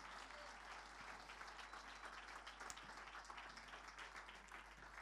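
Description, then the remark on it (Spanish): A church audience breaks into sustained, dense applause in praise of the Lord, many hands clapping steadily at full volume for several seconds with no one speaking over it. “Fuerte ese aplauso de alabanza al Señor.”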